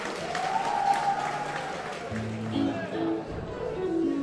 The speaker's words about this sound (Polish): Przywitajcie ich gromkimi brawami.